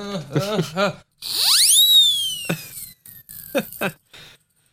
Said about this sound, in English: Absolutely. That that's that's that's our that's our skeptic whistle. By the way, we blow it every time. There's some skeptic. it usually is only saved like a fine wine. It's usually only busted out for UFO skeptics